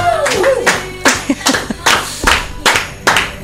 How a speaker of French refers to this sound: Et on applaudit